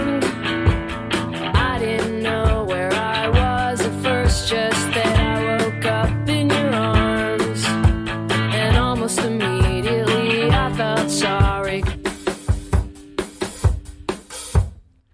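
A recorded rock song plays steadily and loud, with driving drum hits under dense guitar chords, thinning out to a few sparse, separated hits near the end.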